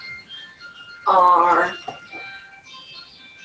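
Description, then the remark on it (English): A phone ringtone sounds as a bright, melodic electronic burst, swelling loudly for under a second amid steadier high tones, with a person briefly speaking. “excuse my phone”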